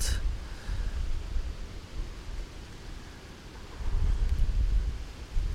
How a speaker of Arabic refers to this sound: في شوية ريح